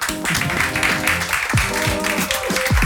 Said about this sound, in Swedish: Och eh, med de orden så tackar vi den fantastiska panelen för de här kloka orden. Ge dem en applåd.